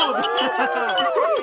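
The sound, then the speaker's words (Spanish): Glasses clink together in a toast, their bright ringing tones sustained beneath a jumble of overlapping voices, fairly loud. “¡Salud!”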